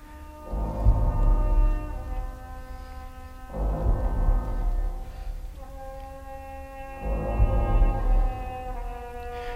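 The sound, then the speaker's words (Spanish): Deep, heavy wind-instrument tones swell in three long, loud blasts, layered with higher sustained pitches in a dissonant, atonal texture, with no voices present. “Ese, sonido grave que no sabemos muy bien qué notáis, ¿no? Es, esa pesadez, esa eh, que acompaña el sonido del, otro instrumento de viento, ¿no?”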